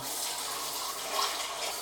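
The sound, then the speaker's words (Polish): A steady, rushing stream of water pours into a cooking pot of vegetables to cover them before cooking, a continuous splashing hiss that stays fairly even throughout with no one talking. “wodą, tak żeby było, e, żeby były warzywa przykryte, ale też żeby nie było tej wody zbyt dużo, żeby nam po prostu nie wykipiała, kiedy zaczniemy gotować.”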